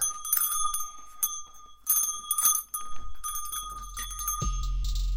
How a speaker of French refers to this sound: Une cloche de, de ma chambre.